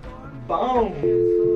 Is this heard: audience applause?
no